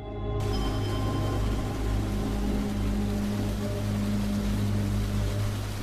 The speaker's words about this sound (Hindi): अगले ही पल तेज बारिश की आवाज परमव्रत के कानों में पड़ी परमव्रत ने पीछे पलटकर देखा तो वाकई लाल रंग की बारिश हो रही थी